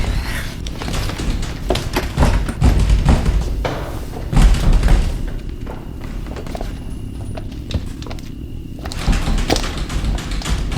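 The door to a room in a house is thumped over and over, heavy low booming knocks in irregular bursts with brief quieter gaps, growing loud again toward the end. No one speaks.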